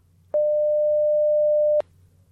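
A steady, pure high-pitched hum of a male Aedes mosquito's wingbeat tone at around 600 hertz sounds alone for about a second and a half, starting and stopping abruptly with faint clicks.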